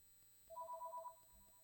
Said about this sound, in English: Sorry, damn phones. I hate them.